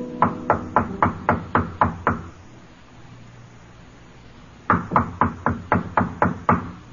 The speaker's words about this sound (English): The dignified man in the pinstripe suit stops before room 617, casts a quick glance back along the corridor, then knocks on the door.